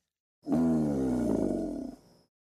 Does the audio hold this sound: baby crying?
no